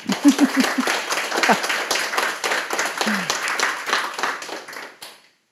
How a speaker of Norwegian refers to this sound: Gi en varm applaus til Vibeke Løkkeberg.